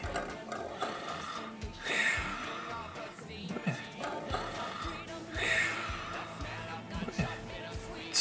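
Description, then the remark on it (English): A persistent, raspy scratching goes on for several seconds, a busy scraping texture that swells louder twice before easing back, with no voices over it. “The scratching stopped? How strange. It's never stopped on its own before.”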